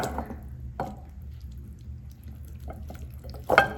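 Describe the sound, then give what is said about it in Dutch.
Konjac noodles being put into a bowl: soft, wet squishing and scraping in a few short bursts, the loudest near the end, over a steady low hum. “Ik ga nu de noedels in de kom doen.”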